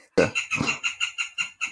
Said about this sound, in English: Dude, those birds are loud as fuck, too, by the way.